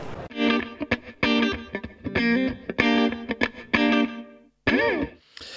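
A Kenwood CRS D100 DAB radio receiver plays loud, distorted, effects-heavy music in rhythmic bursts of sustained, buzzy harmonic tones, with one brief gap near the end and no talking.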